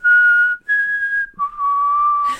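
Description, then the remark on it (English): Someone whistles a western standoff theme: three long, clear held notes, the second slightly higher and the last dropping lower, ending in a brief breathy burst. No talking. “As you're talking about rattlesnakes, all I can hear in my head is the western theme for a, sh- a standoff.”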